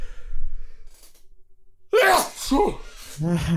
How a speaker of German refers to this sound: Ah, ich weiß gerade nicht, was los ist. Tut mir echt leid. Ich mache mir mal einen Marker rein, damit wenigstens die Pausen zwischen den Niesern nicht so groß sind.